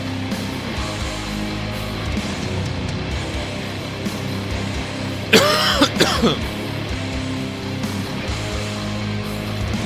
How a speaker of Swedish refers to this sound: Fan, kan han inte klippa bort hostningarna?